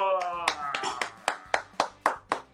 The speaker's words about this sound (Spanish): Así que bienvenido a LatinoBus en vivo. Un aplauso para nuestro querido invitado.